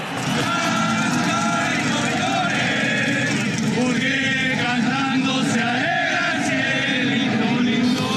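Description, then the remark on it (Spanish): A dense, loud crowd of Mexican football fans shouting and cheering continuously for their national team, many overlapping excited voices forming a constant roar with rising yells throughout. “Gritos, euforia desbordada.”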